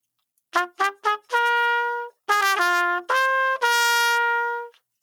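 A bright NFL draft pick announcement chime: three quick staccato brass-like notes, then longer sustained tones rising to a final held blast, loud and clear with no talking.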